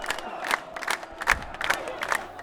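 A protest crowd at Raman shouting in loud, rhythmic bursts, voices rising together roughly every half second in a chant-like pattern over a constant murmur of many people.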